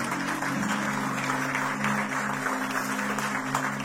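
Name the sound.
audience applauding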